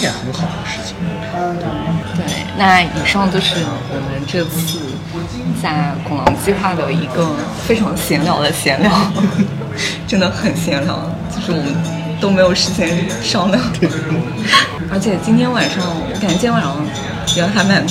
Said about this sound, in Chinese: 就大家可能会听到我们背景里面会有一些大家聊天的声音啊，然后有客人走动的声音啊，还有调酒师调酒的声音啊，就是我们现在就在拱廊书店的吧台进行了这样的一次录音